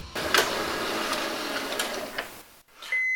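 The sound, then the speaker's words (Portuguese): A printer whirs loudly and steadily with rhythmic mechanical clicks, then stops again abruptly, followed by a brief steady electronic tone. No one speaks. “Ah, não, sem impressora parou de novo!”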